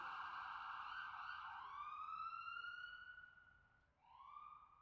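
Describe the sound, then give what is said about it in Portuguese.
A loud ambulance siren wails in long rising and falling sweeps as it passes, briefly dipping before climbing again near the end. No one speaks. “tenho apenas leves taquicardias quando eu pego o metrô ou quando passo uma ambulância.”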